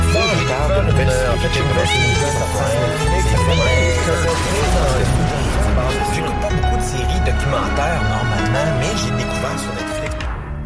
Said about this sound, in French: Clairement, il y a un chat qui s'est inséré hein, dans l'indicatif. Dans entre la porte et euh, le mur. c'est là qu'il s'est inséré.